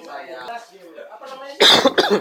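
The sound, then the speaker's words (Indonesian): Talking voices give way to a couple of loud, harsh coughs close to the microphone near the end, two sharp bursts in quick succession. “Wih, sorry, si batuk nih”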